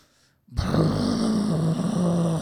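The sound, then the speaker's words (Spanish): A voice imitates the growl of a dog under a table: after a brief quiet moment, a low, rough, rumbling snarl starts abruptly and holds steady and fairly loud until the end. “Y mi esposa pone el mute y escuchamos que es el perro.”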